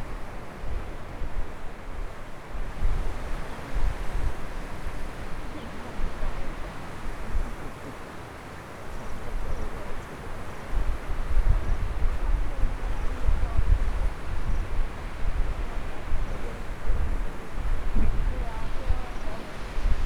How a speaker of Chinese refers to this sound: 其实今天的海浪不算太凶，然后这个海浪啊，其实是在退潮。因为虽然离我们很近，海离我们很近，但是声音其实是一直在往后退的，没有一直逼过来的感觉。